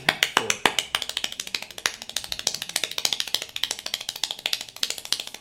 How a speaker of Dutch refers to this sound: hier komt het wereldrecord klappen. Het begint even langzaam, want je moet op stoom komen, wil je een beetje de vaart erin krijgen. Dat gaat zo.